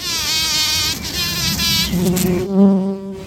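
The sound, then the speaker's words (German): Small bumblebees buzz around flowers, feeding on nectar, at a wildlife park in Herborn, in a steady, droning hum whose pitch rises and falls as they move about, with one passing by toward the end. No one speaks. “Kleine Hummeln freuen sich über den Nektar in den Blumen.”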